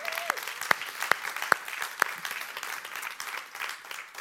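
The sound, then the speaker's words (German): Audience applause for Jesus fills the whole stretch as a dense, steady wash of many hands clapping, with a few sharper individual claps standing out near the start. “Und von dem her dürft ihr jetzt nochmal einen fetteren Applaus für Jesus geben, der mit euch unglaublich Geschichte schreibt, oder?”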